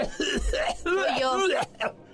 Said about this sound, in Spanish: No, esa tos.